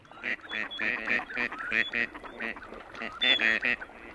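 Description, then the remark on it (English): A busy chorus of courting male gadwall ducks, with short nasal, reedy calls repeating in quick overlapping bursts from several birds. “Yeah, so I think what I'll try to do here, I'll play the I'll play this track that's mostly courting males.”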